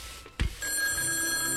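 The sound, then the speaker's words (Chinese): A short dull thump, then a telephone bell starts ringing while a man is ironing clothes, a bright, steady high-pitched trill that continues unbroken to the end with no one talking. “叮铃叮铃，这时。电话响了，欢先生放下熨斗，急忙去接电话”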